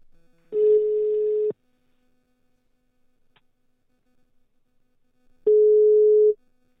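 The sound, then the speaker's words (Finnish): Two long, steady ringback tones of an outgoing phone call being tried again, each about a second long with a few seconds of near silence between them, clear and fairly loud. “Nyt tehdään niin, että mä koitan taas soittaa.”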